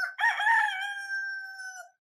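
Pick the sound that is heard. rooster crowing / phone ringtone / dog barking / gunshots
rooster crowing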